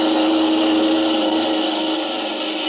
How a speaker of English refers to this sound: That car is headed right at you!